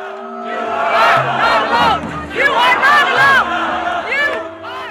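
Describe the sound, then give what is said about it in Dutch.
A large Extinction Rebellion protest crowd in the Netherlands, demonstrating against fossil fuel subsidies on a Saturday in late January, cheers and chants together, with hundreds of people along the side cheering on. Many voices rise and fall in loud, continuous waves of shouting. “En langs de kant staan nog eens honderden mensen ze aan te moedigen.”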